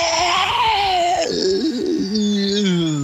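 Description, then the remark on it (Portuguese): A voice imitates a singer's strained, hoarse scream at the end of a punk song: one continuous wailing cry that wavers and bends in pitch, then trails into a thinner, fading tone. Fairly loud, with no other talking. “Ele começa a só gritar, a música vai acabando, e ele vai perdendo o som e vai ficando tipo.”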